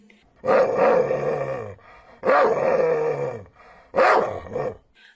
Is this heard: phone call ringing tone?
no